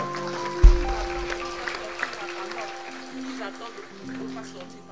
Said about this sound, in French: Amen, amen, amen. On peut applaudir le Seigneur encore.